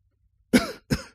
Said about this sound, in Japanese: ちょっと咳払い失礼します。